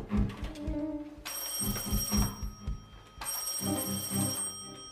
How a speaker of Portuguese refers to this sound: Passe-me o telefone, delegado. Eu vou fazer uma ligação para a capital.